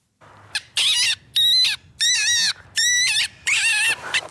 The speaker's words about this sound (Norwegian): På filmklippet du nettopp hørte, plukker dyreverneren Frank Nervik opp en skadet mink før en veterinærinspeksjon på en pelsfarm i Rogaland.